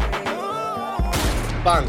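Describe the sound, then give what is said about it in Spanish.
A gunshot sound effect bursts out of a playing music track, with a sharp crack near the start and a heavier blast midway, ringing over sustained tones. “Cuando hace el disparo.”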